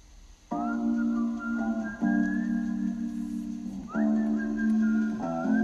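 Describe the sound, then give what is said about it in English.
A whistled pop melody rings out loud and clear over music, holding sustained notes that shift pitch in a few distinct steps. No one speaks. “They totally had the whistle shit in their shit too, right?”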